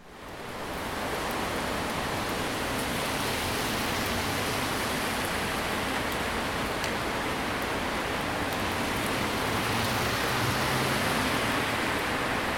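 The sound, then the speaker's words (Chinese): Heavy rain starts to pour down beside a guesthouse in Taiwan, a dense, steady hiss that swells up in the first second and then holds at an even, loud level, with no voices. “哇，真的要下大雨了，那我们赶快回家吧。”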